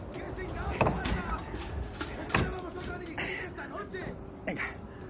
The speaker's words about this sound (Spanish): Mowbray cierra la puerta.